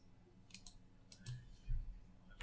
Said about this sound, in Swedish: Vem är det som sitter och klickar? Sluta klicka. Ja? Eh, inte jag. Det, det, vi har för bra mickar. Vi har för bra mickar.